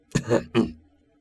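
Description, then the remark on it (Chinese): A short two-part throat clearing, a rough, gravelly 'ahem' with two quick pushes of moderate loudness, followed by a brief fade into quiet. No talking. “于是我清了清嗓子，很柔和但是很坚定的说”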